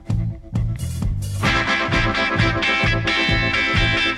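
A loud rock cover version of a song kicks in with dense, heavily distorted electric guitar chords over a steady, punchy drum beat and bass, filling the sound with gritty sustained noise.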